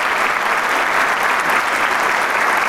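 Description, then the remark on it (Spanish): Sustained, loud applause from the Camerata concert audience for a young virtuoso maestro, a dense even roar of many hands clapping with no pauses or individual claps standing out, filling the whole stretch without talk. “Solo el aplauso nos puede dar una idea.”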